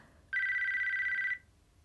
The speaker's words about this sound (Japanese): 携帯電話が鳴った。